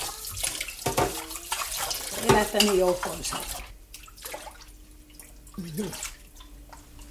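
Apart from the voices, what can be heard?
rain falling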